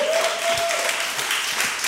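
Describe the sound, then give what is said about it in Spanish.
A church audience applauding the Lord together, a steady, dense wash of many hands clapping at full volume for about two seconds, with a faint held tone briefly audible underneath at the start. “¿Es fuerte el aplauso al Señor.”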